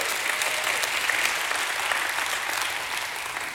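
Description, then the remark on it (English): A church audience breaks into steady applause for a man, a dense wash of many hands clapping at once, holding at an even, fairly loud level throughout with no voices standing out. “Come on, church, give him a hand clap.”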